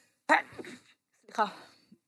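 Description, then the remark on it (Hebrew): Two sharp sneezes about a second apart, each a sudden loud burst trailing off into a breathy fade. “מכירה שאחרי אפצ'יות תמיד פוחדת שיש לך נזלת פשוט תלויה?”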